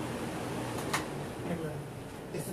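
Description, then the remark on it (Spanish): Electric fans running with a steady, even whir and airy hiss throughout, plus a low hum underneath and a faint brief tap or two. “hazme un favorcito, porque este, traigo los ventiladores prendidos.”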